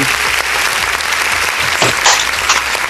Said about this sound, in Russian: Мы вас приветствуем под эти бурные аплодисменты.